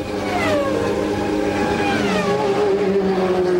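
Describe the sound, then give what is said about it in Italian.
A racing car engine revs loudly and continuously, its pitch sliding down and then climbing again in a smooth, high-revving whine, without any voices. “capita quello che per un costruttore realizza trasformando una materia informe dei forgiati in una meccanica vivente, in una armonia di suoni.”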